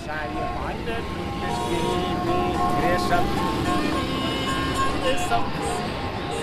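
Steady, dense street traffic on the main road of Kathmandu, Nepal, heard from a parking lot beside it, with a continuous low engine rumble and hum, occasional higher tonal whines and brief horn-like bursts rising above the constant roar.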